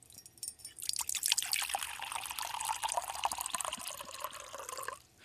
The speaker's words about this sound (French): et on, va faire couler l'eau en premier. Là. Vous essayerez d'identifier si c'est l'eau froide ou l'eau chaude.